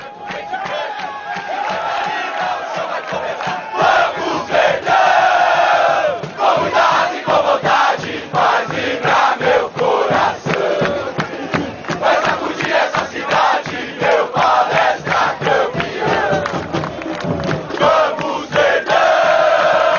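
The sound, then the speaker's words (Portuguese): Football supporters chant together in a loud, sustained mass of voices, with steady rhythmic hits or claps punctuating the singing for the full twenty seconds. “Vamos ver essa musiquinha, hein?”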